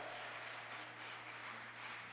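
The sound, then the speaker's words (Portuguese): An audience applauding the Lord in praise, a steady, dense wash of many hands clapping, sustained and fairly loud throughout, with a low hum underneath and no clear speech. “Dê um glória a Deus e aplauda o Senhor aqui, adore.”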